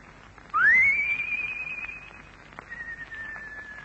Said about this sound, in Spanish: Es un silbido parecido, ¿no? muy lindo, sí. se nota que han ido a, la misma escuela de pajaritos, ¿eh?